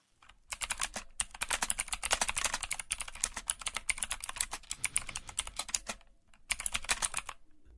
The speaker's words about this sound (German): Ein, eine klackernde Tastatur.